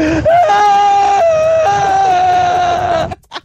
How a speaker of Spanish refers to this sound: Todavía estoy llorando.